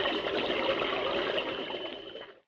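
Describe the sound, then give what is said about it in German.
Continuous bubbling, gurgling water from a police scuba diver underwater fills the scene at a steady level, air rising underwater, before fading out near the end. No voices are heard. “Oh. Da ist ein Taucher.”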